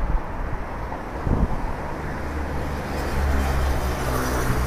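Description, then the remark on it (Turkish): Strong wind buffets the microphone in a steady, loud low rumble with gusty surges, no voices heard. “Şu an çok rüzgar esiyor sesim duyuluyor”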